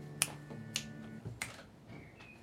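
Three crisp finger snaps, evenly sharp and loud, spaced a little unevenly over about a second and a half, with a faint low hum lingering underneath and no talking.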